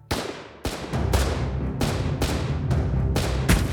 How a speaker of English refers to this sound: But before he could formulate a plan, gunshots rang out. The Germans fell to the ground.